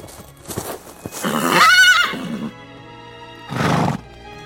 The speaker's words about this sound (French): elle vit arriver du côté de Batna un cavalier sur un fougueux cheval gris. Le cavalier, qui portait la tenue des officiers indigènes de Spai, poussa son cheval dans le lit de l'oued.